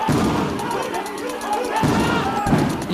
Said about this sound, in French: forces de l'ordre tirent des grenades lacrymogènes pour disperser la foule.